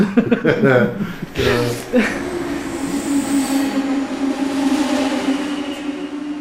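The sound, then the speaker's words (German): A train rumbles and hums steadily at a railway station platform in Göttingen, a sustained metallic drone over broad rail noise, with brief voices and a chuckle at the very start. “Wieder holt mich … am Bahnhof ab”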